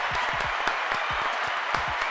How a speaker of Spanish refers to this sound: Ey, ey, ey. Un aplauso, muchachos.